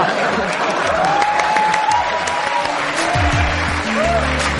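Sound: applause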